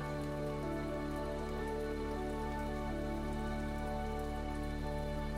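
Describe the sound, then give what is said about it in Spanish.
Steady rain falls continuously, with raindrops pattering on a surface in a dense, even wash of sound. No voices are heard, just the constant, soft drumming of the downpour throughout. “Hoy realizamos una meditación con los sonidos de la lluvia, buscando calmarnos y renovarnos a través de sus gotas.”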